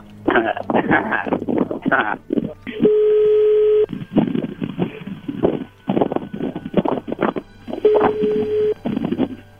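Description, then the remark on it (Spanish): Two steady telephone ringing tones, each about a second long and a few seconds apart, come through a phone line as a number is dialed again, while people talk around them. “A ver, márcale de nuevo.”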